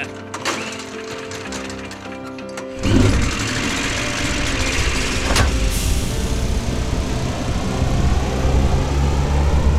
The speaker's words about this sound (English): Now it's time to start the engine.